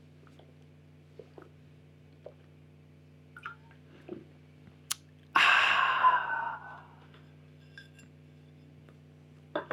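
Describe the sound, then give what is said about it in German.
A single sharp clink of glasses in a toast, followed moments later by a loud, satisfied breathy exhale after a drink of Fauna Medium natural mineral water with little carbonation, against a quiet, steady background hum. “einen guten Schluck, warte, wie heißt das? Fauna Medium. Natürliches Mineralwasser mit wenig Kohlensäure”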